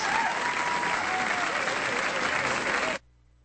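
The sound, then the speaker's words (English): Steady, dense applause from a crowd, loud and continuous for about three seconds before cutting off abruptly into near silence. “you should have applause at the end of your shows.”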